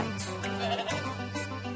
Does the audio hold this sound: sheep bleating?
yes